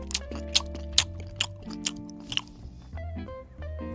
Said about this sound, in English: Do you want to know why? Because nobody wants to hear you chomping your food. Yuck! It doesn't sound good.